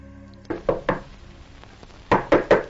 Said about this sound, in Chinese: 侦查员上前敲门，没有吭声。